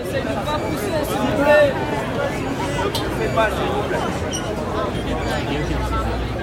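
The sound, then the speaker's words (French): A dense, restless crowd waiting in a queue murmurs and talks over one another as the line starts to move, a steady wall of overlapping voices with occasional louder shouts breaking through, continuous throughout. “Mais quand au bout de ces 100 ans d'attente ressentie, il y a du mouvement, ça donne ça.”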